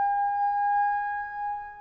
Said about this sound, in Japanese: 1941年12月7日は素晴らしくよく晴れた日曜日だった。エドワード・タウンゼント・ジュニアは時ならぬサイレンで眠りを破られた。午前8時過ぎである。